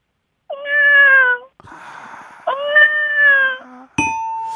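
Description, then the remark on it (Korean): A person mimics a cat with two drawn-out, nasal meows separated by a brief rustle of noise, followed at the end by a single bright bell ding that rings on. “아, 이번엔 고양이 소리.”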